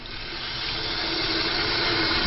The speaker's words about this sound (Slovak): Krupy takisto namočíme do vody. Hej, hej preplachneme aspoň v štyroch vodách.